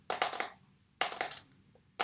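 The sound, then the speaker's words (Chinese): Fingers tap rapidly on a mobile phone in an ASMR video meant to calm the listener, in short bursts of about four crisp, clicky taps each, with brief pauses between bursts and a final tap at the end, no talking. “就这么敲手机，然后他就说这样子能让你心情平复下来，然后听得我真的是。”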